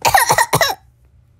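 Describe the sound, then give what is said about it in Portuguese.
A quick burst of three harsh coughs from a rhinitis flare-up in rapid succession, fairly loud and with no talking, followed by near silence. “Foi mal, minha rinite atacou.”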